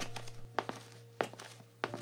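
Three slow, evenly spaced footsteps of an elderly man walking up to a baby stroller, each a soft, dull thud, over a low steady hum, with no voices.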